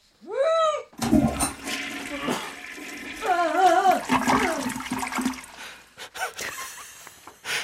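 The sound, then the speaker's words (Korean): A brief wavering, voice-like tone comes first, then a loud toilet flush roars for about four seconds with warbling, gurgling tones inside the rush before it trails off into sputters. “그리고 그날 화장실에선 또 이런 소리가 들렸어요.”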